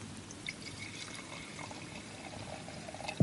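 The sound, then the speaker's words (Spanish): A drink is poured into a glass in front of a microphone in one steady, gurgling stream lasting about three seconds, fairly quiet, ending with a brief soft knock. No one speaks. “Sí, pero échalo eh, delante del micro que si no se oye muy ah, lejos.”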